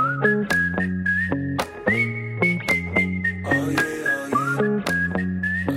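The intro of one of a rap artist's new songs plays loudly: a whistled melody glides over a steady beat with punchy drum hits and repeating bass notes, with no rapping yet.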